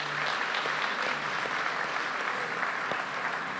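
An audience at a church meeting claps steadily for a few seconds as a round of applause to Jesus for a child's life, a dense, even patter of many hands with a few sharper individual claps standing out, and no one speaking over it.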